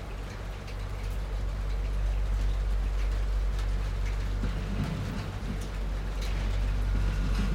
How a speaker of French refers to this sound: Vous êtes sur une terrasse, sur votre terrasse. C'est dimanche matin. Vous entendez les bruits de la ville au moins. Quelques oiseaux